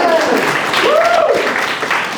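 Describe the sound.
A live audience claps and cheers, dense steady applause filling the whole moment, with a high whooping voice rising and falling above the clatter of hands.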